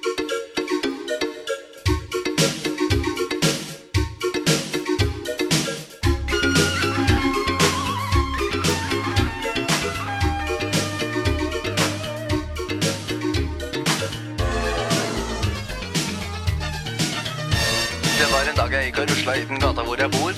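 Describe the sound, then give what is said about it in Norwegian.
An upbeat 1987 advertising jingle for Peppes Pizza plays at full volume, with a bouncy bass line, punchy drums and bright synth-pop instruments driving a steady rhythm throughout, and no one talking over it. “Jeg sa at jeg skulle spille en liten musikksnutt som på en måte er clouet for hva vi skal snakke om.”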